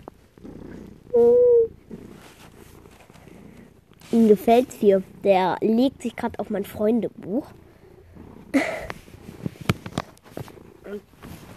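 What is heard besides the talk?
cat purring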